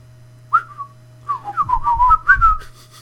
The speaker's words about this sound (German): Auch da, da sind die Pfeifen wieder.